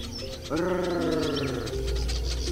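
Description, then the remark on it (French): A honeyguide bird chatters in steady, rapid, dry bursts in front of honey hunters, while a lower droning tone swells in and slowly falls for about a second beneath the calls. “L'oiseau arrive, s'agite et commence à, bah, bavarder devant eux pour attirer leur attention, avant de les guider vers les ruches.”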